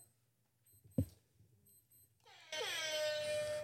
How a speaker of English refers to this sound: we got an alarm going up fire alarm